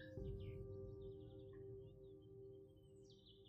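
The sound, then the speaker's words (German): Birds sing softly, a few scattered chirps and short rising whistles drifting over a low, steady background hum, with no voices. “Das Licht blinzelt durch die Blätter und du hörst die Vögel singen.”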